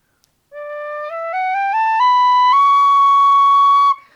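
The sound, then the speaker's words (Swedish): A tin whistle, a very narrow recorder-like instrument, played by someone trying it for the third time, plays a slow rising scale, stepping up one note at a time, then holds a long, steady top note. It sounds clear, with no talking. “Får vi höra lite? En, en tin whistle.”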